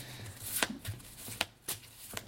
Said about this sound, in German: Diese Karten werden gut gemischt.